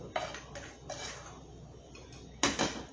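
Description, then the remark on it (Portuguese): Food being placed on a plate, with a few sharp clinks and soft scrapes of utensil against dish spread over a few seconds, the loudest pair of knocks near the end. No one speaks. “tô colocando aqui no prato agora.”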